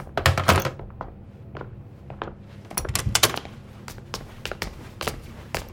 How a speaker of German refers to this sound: Magst du mal aufmachen? Okay. Nora öffnet die Tür.